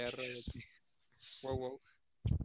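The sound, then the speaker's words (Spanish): A person imitates a wolf howl with a few short, voiced wails separated by brief pauses; the last burst is the loudest. “Ahí ya te, ya, te aullaron por allá. De lobo.”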